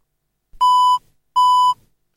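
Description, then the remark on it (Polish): Two short electronic beeps from a Penfriend audio labeling device as its button is held to switch modes, each a steady mid-pitched tone lasting under half a second, separated by a brief pause. Clear, with no talking. “Usłyszałem dwa dźwięki.”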